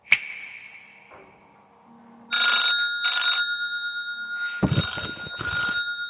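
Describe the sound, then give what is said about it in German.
A phone rings with an electronic ringtone for an incoming call, bursts of bright tonal chiming repeating in a steady pattern, loud, after a sharp click and a brief quiet stretch. “Jetzt ruft er mich an, dann machen wir es über WhatsApp.”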